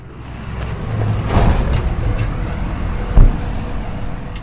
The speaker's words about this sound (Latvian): Pēc sarunas servisā braucu apmēram kilometru Siguldas virzienā.